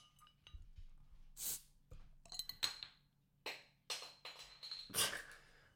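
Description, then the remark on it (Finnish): Glass bottles clink and rattle, broken up by several short hissing bursts as a Corona beer bottle cap is pried off and releases fizz, with no one speaking. “Oh, the lovely sound. Oh. Oh, siis korona ei petä”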